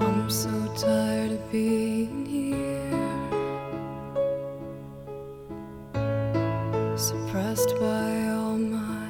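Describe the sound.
A slow rock ballad plays steadily, with a lone sung vocal line over sustained, layered instrumental chords, moderately loud and continuous throughout.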